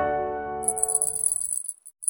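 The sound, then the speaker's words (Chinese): A small cat collar bell jingles in a rapid, bright, high-pitched shimmer of tinkling shakes, following a fading tonal chime and stopping briefly before a last jingle. “这是铃铛的声音，正确点说应该是猫铃铛。”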